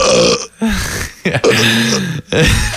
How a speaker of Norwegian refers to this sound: Det der er jo jenteraper.